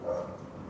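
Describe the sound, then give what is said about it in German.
One of the neighbours' dogs barks once, a short muffled bark that fades into a quiet background hum. “Ihr hört im Hintergrund, die Hunde der Nachbarn sind aktiv.”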